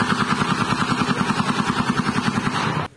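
A long, rapid burst of rifle fire during a killing in broad daylight in Nova Iguaçu, 50 km from Rio de Janeiro, shots hammering in a steady, fast rhythm for almost three seconds before cutting off abruptly. Loud and harsh, with no voices.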